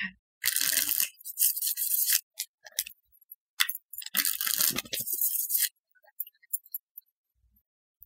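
Two long bursts of crisp, papery riffling as a deck of tarot cards is shuffled, followed by a few soft taps and flicks as three cards are pulled and set down for a reading. No one speaks.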